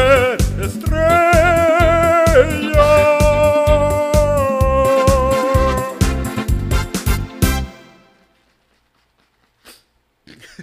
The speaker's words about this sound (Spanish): Pareciera un aplauso. ¿Verdad? Sí, sí, Son un poco aplaudiendo.